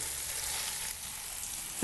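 Meatballs frying in a pan, a steady, soft, hissing sizzle that holds evenly throughout with no voices, ending in a brief sharp click.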